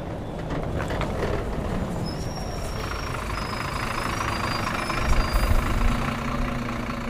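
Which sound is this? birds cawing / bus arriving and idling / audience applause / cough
bus arriving and idling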